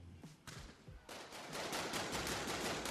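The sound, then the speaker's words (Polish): A rapid burst of gunfire, shots cracking in quick succession and building into a dense, continuous volley by the end, loud with no voices. “No bo gdyby się zastanowić, kim on był, e, to patrząc na lata 90., e, możemy sobie dobrać e, strzały.”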